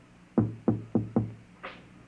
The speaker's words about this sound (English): The last man on earth sat alone in the room. And then there was a knock on the door.